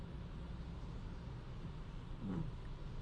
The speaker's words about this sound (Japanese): えー、今ですね、えー、放送が終わって、雨の中車で帰る2月20日土曜日夕方5時です。